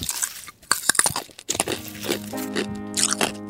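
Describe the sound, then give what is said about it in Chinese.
A handful of sharp, crisp crunches of a big mouthful of shaved ice topped with blue syrup being eaten come in quick irregular bursts, then give way to a sustained, bright musical tone that carries through to the end. “波波淋了一点蓝色的糖浆，吃了一大口。”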